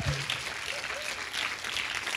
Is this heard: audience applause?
yes